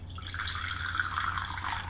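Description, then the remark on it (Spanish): Freshly brewed coffee from the coffee maker is poured into a cup in a steady, continuous trickle that lasts about two seconds, with a soft splashing hiss over a faint low hum and no voices. “Pero antes de decirles los titulares, voy a pasar a servirme el cafecito informativo que está recién salido de la cafetera, así que lo pongo en la taza.”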